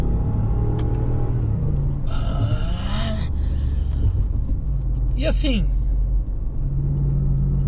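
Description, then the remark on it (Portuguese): A deep, steady supercharged V8 car engine rumble fills the whole recording as the car accelerates, loud, with a man talking over it and a brief high whine partway through. “Compraria por ser o V8 Supercharger, gastador de combustível mesmo.”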